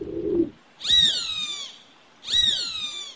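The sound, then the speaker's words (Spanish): A short, low dove coo gives way to two shrill, descending hawk screams, each lasting under a second with a pause between. The calls are clear, with no voices. “Vivían muy en paz la torcaza y el gavilán,”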